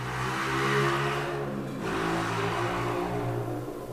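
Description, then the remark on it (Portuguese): A motorcycle engine revs right beside the listener as someone tests the motorcycle, its pitch sliding down and then climbing again in a steady, loud drone with strong harmonic tones and no talking. “Acho que alguém está testando uma moto aqui do meu lado.”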